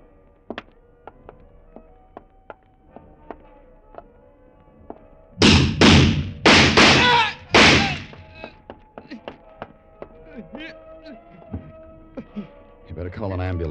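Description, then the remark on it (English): A door is kicked open with a quick run of about four heavy, booming thuds bunched together, loud and sharp against an otherwise quiet stretch, followed by faint voices and light clatter. “I'll kick it open.”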